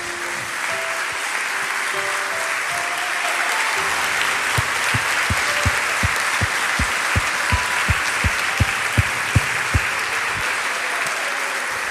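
A church audience bursts into sustained applause for the Lord, a dense wash of clapping that holds steady throughout, with a run of regular low thumps joining in partway through, like a drum beating time.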